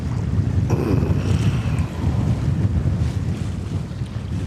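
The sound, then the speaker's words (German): Strong, gusty, icy-cold wind buffets the microphone during fishing, a continuous low roar swelling and easing in loud rumbling bursts, with faint water and boat noise underneath and no voices. “Was ist denn das für ein krasser Wind? Wirklich. Ich weiß gar nicht, ob ihr mich überhaupt verstehen könnt.”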